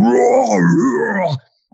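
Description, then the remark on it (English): A person imitates a leopard's blood-curdling charge scream: one loud, sustained, wavering wail with rough, harmonic-rich tone that swells, bends in pitch, and cuts off abruptly after about a second and a half. “And not a second later, and again, that's on YouTube too, but this leopard just lets out this blood curdling, just”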